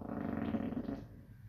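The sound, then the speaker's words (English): One drawn-out, low, rumbling fart, fairly loud, buzzing steadily for about a second before tapering off. No one talks over it. “I freaking farted”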